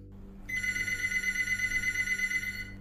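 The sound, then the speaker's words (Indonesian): A telephone rings at six in the morning with a steady, bright electronic tone that starts abruptly and holds continuously for over two seconds, clear over a low background hum, with no voices. “telepon bunyi, dan Zainal pun bangun.”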